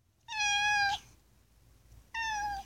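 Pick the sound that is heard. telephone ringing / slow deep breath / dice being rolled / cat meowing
cat meowing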